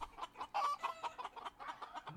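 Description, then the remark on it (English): A person imitates a chicken with a quick, uneven run of nasal clucks, fairly loud, about a dozen short bursts packed into two seconds with no other talking. “you started the first chicken.”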